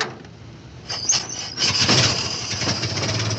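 An old car engine is hand-cranked: a few sputtering turns, then it catches and settles into a loud, steady running rumble, with no voices.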